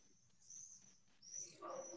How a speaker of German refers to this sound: Wer hat eigentlich so viele Vögel ah, im Hintergrund? Ich glaube, da bin ich, sorry.